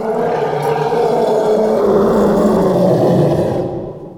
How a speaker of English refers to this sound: And then layered on top of that are these elephant growls, these horrible elephant growls. Not a lot of people even know elephants make this sound, but they do growl from time to time, and they produce this this insane roaring.